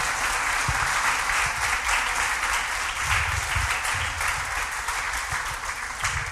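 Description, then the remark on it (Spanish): An audience breaks into sustained applause, dense and steady for several seconds, with many hands clapping at once in a continuous, fairly loud wash of sound. The applause is given to the Lord during a church sermon. “Denle un aplauso al Señor que Él nos da ese tipo de vida.”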